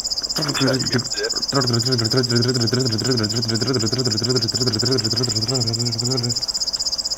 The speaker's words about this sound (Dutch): Ja, dat is omdat die schuif niet eh, bij u oor terecht komt, maar we horen nu op dat echt de krekelzanger zingen.